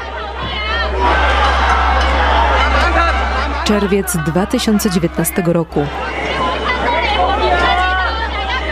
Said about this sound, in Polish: To dźwięk z jednej ze stacji metra w Hongkongu. Na stacji setki mieszkańców i nagle rozbrzmiewają słowa. Nie ma ekstradycji do Chin.